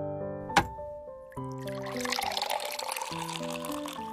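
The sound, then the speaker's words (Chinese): Lemonade pours into a glass in a steady, splashy stream lasting a couple of seconds, with soft tonal music playing underneath and a brief knock just before the pour. “来，喝杯柠檬水，咱们慢慢聊。”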